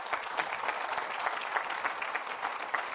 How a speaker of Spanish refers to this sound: ¿Cuántos dicen gloria a Dios? Dele otro fuerte aplauso a Cristo.